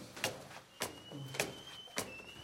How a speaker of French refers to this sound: Encore une porte. Et puis, encore une porte.